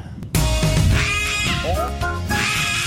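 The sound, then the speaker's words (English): A person loudly imitates a rooster crowing as a sign-off on the Racing HQ show: one long, strained, warbling vocal call lasting a few seconds, mostly on its own. “Um, but what we do have to do, mate, if you've got it ready, is crow”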